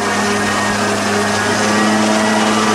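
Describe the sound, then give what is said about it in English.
A loud, steady engine drone runs throughout, with a constant high-pitched whine and harmonic hum, from a leaf blower operating at full throttle about 14 feet away. “There's a leaf blower going 14 feet away.”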